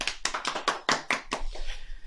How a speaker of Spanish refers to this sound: Así que aplausos para él.